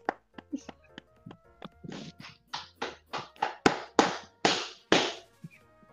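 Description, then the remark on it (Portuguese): A run of about fifteen sharp hand claps, soft and quick at first, then growing louder and more spaced out in an uneven rhythm, with no talking. “É palma, palma. Isso aí é palma, isso aí é, isso aí é um tapa.”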